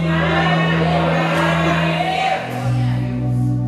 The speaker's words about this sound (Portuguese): Você pode aplaudir a Ele mais uma vez? Sim. Glória a Deus.